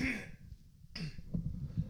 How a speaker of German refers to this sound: Oh, ich muss mich kurz räuspern, Entschuldigung. Macht ja nichts.